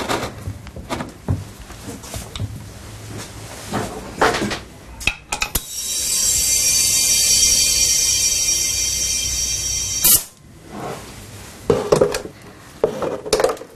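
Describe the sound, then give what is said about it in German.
Metal pot and lid clatter with scattered clanks, then a loud steady hiss of escaping steam for several seconds, followed by more knocking and clinking as the pressure cooker is handled, with cast material inside hardening in hot water under high pressure. “Danach kommt das Material in einen Dampfkochtopf, wo es unter Hochdruck in heißem Wasser aushärtet.”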